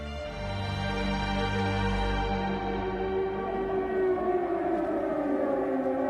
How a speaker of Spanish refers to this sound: Nada más comenzar su discurso, suenan las sirenas en señal de alarma en Berlín. Lo más irónico es que cuando pronuncia ese discurso, los mosquitos británicos bombardean Berlín.